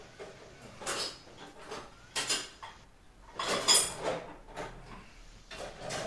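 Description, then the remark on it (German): Kitchen dishes clink and clatter in several scattered bursts, with a brighter ringing clink near the middle, over quiet background noise and no voices. “Es klimpert, es klackert.”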